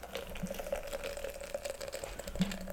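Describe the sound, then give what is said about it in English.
A drink pours steadily into a glass, a continuous splashing gurgle with a faint ringing tone, lasting a few seconds with no one talking. “Pour that bitch.”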